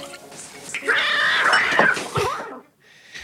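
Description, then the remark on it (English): A cat gives a long, loud, drawn-out meow, its pitch rising and bending for over a second before trailing off into a brief quiet. “he comes in with the cat again.”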